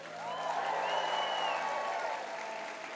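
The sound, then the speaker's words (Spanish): A church audience applauds and shouts in praise of God for a few seconds, dense clapping filling the space, with scattered raised voices and cheers rising above the sustained applause. “Por eso aplaudimos, por eso gritamos.”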